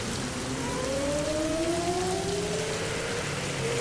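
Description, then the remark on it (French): A steady, dense hiss of rain falls continuously at the Interlagos circuit in Brazil during the Brazilian Grand Prix, with faint rising tonal whines drifting underneath; no one speaks. “Malheureusement, il peut bientôt pleuvoir.”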